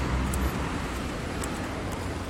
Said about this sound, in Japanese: やばいやばいすげえ大通り来ちゃったやばいちょっと大通り来ちゃったんでそろそろ終わりにしようかこれうるさいないきなりグババ車の音が